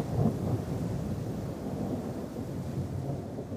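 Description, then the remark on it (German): Drizzling rain at sea aboard the Bounty as the crew lets a dead body slide into the sea, forming a steady, even hiss over a continuous low rumble, unchanging for the few seconds, with no voices. “Es nieselt, als die Mannschaft den toten Körper ins Meer gleiten lässt.”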